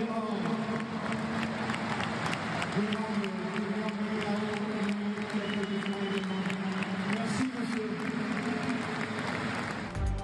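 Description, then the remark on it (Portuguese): A large football stadium crowd in France gives a standing ovation during the Olympique de Marseille versus Toulouse match, a dense, continuous wash of clapping and cheering with sustained chant-like tones rising through it, loud throughout with no pauses. “Na França, o público aplaudiu de pé o maior jogador de futebol de todos os tempos, durante o jogo entre Olympique de Marselha e Toulouse.”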